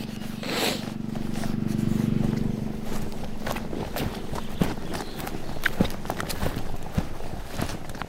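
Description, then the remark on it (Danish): Irregular hoof thuds and clops from horses moving on the ground, mixed with a low rumbling snort early on and steady outdoor background noise. “Men ved du hvad, jeg tror simpelthen, det var derfor, vi kunne komme så tæt på, øh, på hestene før.”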